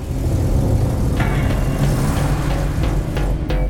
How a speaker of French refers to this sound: El Chapo est au volant de sa voiture dans le centre de Guadalajara. Il conduit tranquillement sans se préoccuper de la circulation.